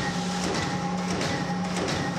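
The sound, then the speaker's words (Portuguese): Photocopier machines at a university copy shop run at full steam during exam time, copying handouts and notebooks: a constant mechanical hum with steady tonal whine and faint, regularly repeating swishes of paper passing through, with no voices. “que é o Xerox na época de prova de faculdade as máquinas lá trabalhando a todo vapor”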